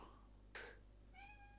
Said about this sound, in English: That's the cat giving a meow.